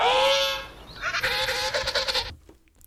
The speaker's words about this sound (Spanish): es un pingüino, como ya ustedes lo pudieron escuchar